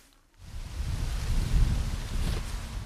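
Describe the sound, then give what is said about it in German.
Wind rushes steadily through mainly European beech trees in the Kellerwald-Edersee National Park in Hesse, Germany, a broad rustling roar with a low rumble that swells and eases slightly, starting after a brief quiet moment. No voices are heard. “Es sind hauptsächlich Buchen, Rotbuchen um genau zu sein, durch die der Wind streicht.”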